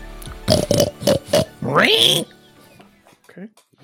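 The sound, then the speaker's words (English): A man's voice imitates a pig: four quick grunting oinks in a row, then a loud, rising squeal, followed by a few faint snuffly noises. “There he is, oinking away there, as he often is.”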